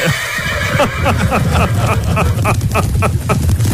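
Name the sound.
horse neighing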